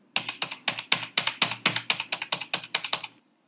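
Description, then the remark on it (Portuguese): Rapid, steady keyboard typing sound, a quick run of crisp key clicks lasting about three seconds before stopping, with no voices; a simulated typing noise played by a telemarketing robot during a phone call. “Aí ele faz esse barulhinho de teclado, como se, ele não sou, se eu não soubesse que ele é um robô, né?”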